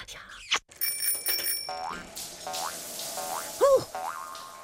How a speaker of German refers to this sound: Trampolinhüpfzeit. Trampolinhüpfzeit. Trampolinhüpfzeit. Ha, ich mag auch kurze, sanfte Hüpfer, die ich bei diesen Geräuschen mache. Ja, das ist schön.